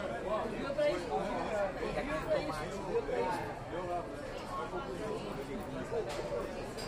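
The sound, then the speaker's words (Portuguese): Steady crowd chatter fills a small bar (boteco), many overlapping voices blending into a continuous, moderately loud murmur with no single speaker standing out. “Horas depois, estamos de pileque num boteco cantarolando a música dela.”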